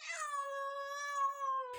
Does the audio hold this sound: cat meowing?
yes